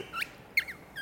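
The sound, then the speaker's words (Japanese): Three short, high, squeaky chirps from a hinoki-wood bird call made of Nishikawa timber, sounded by twisting an eye bolt screwed into a hole in a wooden block, mimicking a small songbird, spaced irregularly and fairly quiet, with no voices. “木片にあの穴を開けまして、そこにあのアイボルトですね、まあ、ネジですねそれを入れまして、まあ、こうやって回すことによって小鳥の鳴き声がします。”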